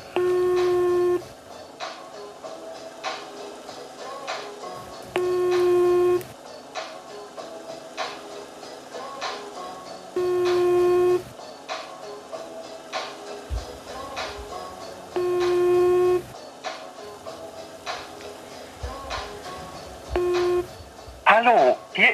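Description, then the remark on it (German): A phone call ringing through the earpiece before reaching voicemail: five steady ring tones, each about a second long, repeating roughly every five seconds over faint background clatter and rustling. “Er telefoniert schon, okay.”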